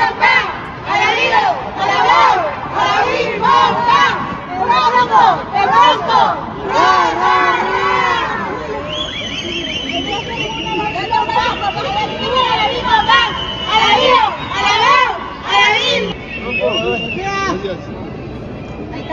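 A large crowd in Mexico roars and chants loudly welcoming boxer Bronco Lara, with rhythmic shouting bursts, then a sustained high-pitched whistle or cry rising over the steady crowd noise.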